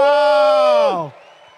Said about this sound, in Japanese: 皆さん、君ライコネン選手、大きな拍手お願いします。